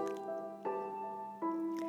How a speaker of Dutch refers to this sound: Je pakt de fles, schenkt wat water in het glaasje en drinkt een slok. Eeuw, het smaakt verschrikkelijk vies. Spuug het sputterend uit.